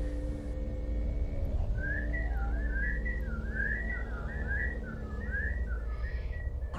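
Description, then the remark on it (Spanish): A wavering, eerie whistle drifts up and down in pitch for several seconds, sustained and melodic, over a low constant rumble of background noise. “Los silbidos volvieron.”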